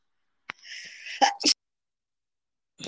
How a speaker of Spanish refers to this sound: Perdón, estornudado. tenía cortaba tiempo, ¿eh? tenía un estornudo ahí.